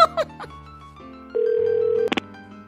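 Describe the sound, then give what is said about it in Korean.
A telephone dial tone effect as a mother phones her friends one after another: short tonal beeps, then a steady mid-pitched hum held for under a second, ending in a burst of bright electronic tones. No one speaks. “엄마는 집에 오자마자 친구들에게 돌아가며 전화를 하셨어요”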